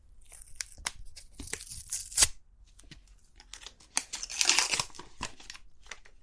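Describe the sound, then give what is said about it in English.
Packaging being ripped and peeled open during an unboxing, with sharp tearing bursts and crackly rustling in irregular spurts, louder in the middle and toward the end, no talking. “I guess I could have done that without ripping it, but whatever.”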